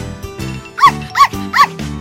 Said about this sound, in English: Yip, yap, woof! Peanut may be tiny, but he is loud.